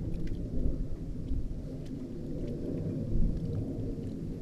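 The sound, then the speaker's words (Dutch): A steady, deep roar of an airplane flying overhead above an island, rumbling continuously at moderate volume with a faint hiss above it and no voices. “En als er niks te zien is, zijn er nog altijd die vliegtuigen om je aan te ergeren.”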